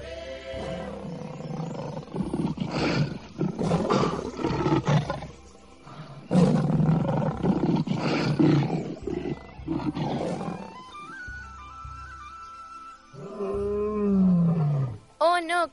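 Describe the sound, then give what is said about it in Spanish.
Two lions roar and snarl in a loud, chaotic fight over leadership of the pride, their rough growls overlapping in bursts for several seconds, ending with a few drawn-out, wavering roars. “Se encontró con dos leones que estaban luchando por el reinado de la manada.”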